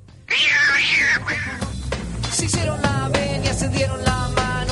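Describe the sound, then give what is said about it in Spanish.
A cat lets out one loud, drawn-out meow, followed by a busy stretch of clicks, knocks and fainter tonal sounds continuing underneath. “Y Simón le dijo que tendría que salvar a sus amigos gansos del gato”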